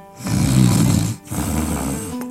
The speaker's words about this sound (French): elle se mettait à ronfler.